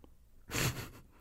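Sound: sneeze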